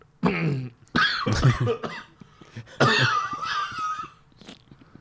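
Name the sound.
harsh coughing fit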